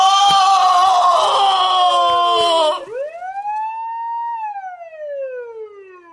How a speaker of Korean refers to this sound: 마침 시끄러운 사이렌 소리가 들렸다.